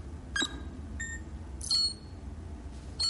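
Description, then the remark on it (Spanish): A series of short, high electronic beeps from the alphabetic touchscreen keys of a building directory as the letter G is pressed and a surname selected, four separate presses spaced irregularly over a low, steady background hum, with no one speaking. “Selecciona el apellido Genaro.”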